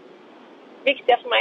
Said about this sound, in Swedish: då kan vi säga att bruset man kan kanske höra i bakgrunden här beror på att du är ute och kör bil. Ja, det är jag.